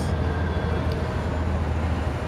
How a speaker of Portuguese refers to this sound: Nossa, cheio de carro. Ônibus.